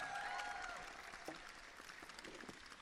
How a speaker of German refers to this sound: Dank für den Applaus schon mal.